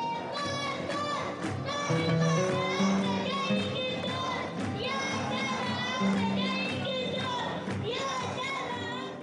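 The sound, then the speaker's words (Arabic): A loud, dense crowd of mostly children's voices chants together in a steady rhythm, shouting continuously, at a street demonstration in Deir Baalba, Homs, Syria, on 20/12/2011, led by a child, with young voices leading the calls. “ومن المظاهرات اللطيفة مظاهرة صارت بحمص بدير بعلبة بتاريخ 20/12/2011 والطريف فيها أنها كانت بقيادة طفل وكان حضور الأطفال فيها بارز بشكل خاص”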